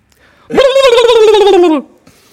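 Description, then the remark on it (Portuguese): A person imitates a turkey gobble: one loud burst of rapid warbling, about a second long, its pitch gliding gradually downward before it cuts off. No speech accompanies it. “e que animais é que sabes imitar? Sabes imitar algum Ai, ah, animal assim maravilhosamente? Uh... Acho que o Peru.”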